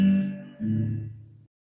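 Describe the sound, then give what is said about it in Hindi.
Two quick guitar strums ring out, the second following about half a second after the first, each chord sustaining briefly before fading to silence with no voices. “कुछ कर्म है तुरंत परिणाम देता है जैसे मैं ये गिटार बजाऊं ये तुरंत परिणाम दिया आप सुन सकते हैं यह भी एक कर्म है”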